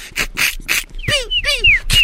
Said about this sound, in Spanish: Ah, escucha las, uñitas de los pollitos rascar la cajita de cartón.